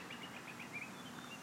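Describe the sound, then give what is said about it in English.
Faint birds chirp in quick repeated bursts over a steady outdoor hiss of background noise in a park, heard from a picnic table in a cool, shaded area, with no one talking. “And I'm just listening to the birds chirp.”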